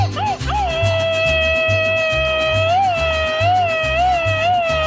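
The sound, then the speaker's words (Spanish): A long, high, rapid machine-gun style Mexican grito shout held for several seconds, wavering and trilling in pitch, loud over a steady thumping rhythmic backing. “¡Échate el grito ametralladora, chamaco!”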